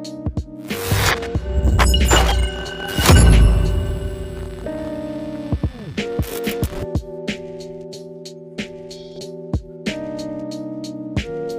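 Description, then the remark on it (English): A 90s East Coast boom bap hip hop beat with no vocals. It opens with loud crashing, shattering hits, then settles into steady, punchy drum hits over a sustained, looping tonal sample. “I was like, hey, bro, I need like a 90s East Coast boom bap beat.”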